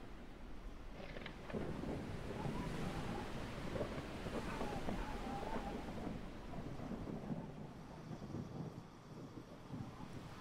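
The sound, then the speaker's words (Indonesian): On a cold day, steady surf rolls and washes continuously while low, rumbling thunder from a storm far off across the sea booms, broad and muffled beneath the constant roar of the sea and a touch of wind. “Di seberang sana, ku melihat badai mulai melakukan sebuah ritualnya.”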